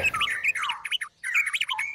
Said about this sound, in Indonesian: Di satu desa, pada sebuah ruang tamu yang di terasnya tergantung sangkar burung-burung mahal.